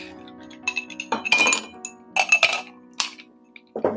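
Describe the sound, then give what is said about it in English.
Several ice cubes drop one after another into a glass while a drink is being made, each landing with a bright, ringing clink. The clinks come in uneven bursts and are fairly loud, with no talking. “So I'm going to take some ice.”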